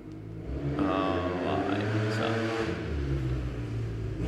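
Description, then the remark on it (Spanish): A delivery rider's motorcycle engine revs, its droning pitch climbing sharply after a moment and then holding a loud, steady growl for several seconds with no talking. “Saludos al pane que llegó ahí en la moto.”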